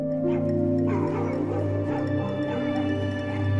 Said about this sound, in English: The dogs bay again. My teeth chatter. What's going on with your neighbor's dogs? Bears, probably.